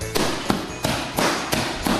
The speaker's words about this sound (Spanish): con lo pacífico que soy yo y, aquí pegando puñetazos